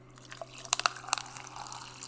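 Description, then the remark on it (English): Sparkling pineapple water from Trader Joe's is poured into a glass, with a few crisp splashes and a soft, steady fizz of bubbles continuing after. Quiet, with no voices. “the pouring of some sparkling pineapple water thing from Trader Joe's.”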